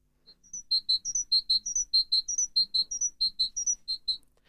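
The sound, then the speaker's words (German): A great tit sings a single strophe: a bright, metallic, powerful two-note phrase repeated rapidly about ten times in a steady rhythm, clear, with no talking over it. “Die Kohlmeise ist die größte bei den Meisen und äh, die klingt dann so.”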